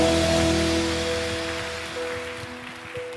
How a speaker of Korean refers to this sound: 원하시는 만큼 주님께 감사와 영광의 박수 올려드립시다.